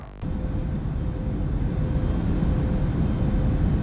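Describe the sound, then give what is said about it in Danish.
Airplane cabin noise from an hour-long cabin sound video: a steady, dense low roar of engines and air, with a faint constant mid-pitched hum riding on top. No voices, just the unbroken drone after a brief start. “En times flyvekabinelyde.”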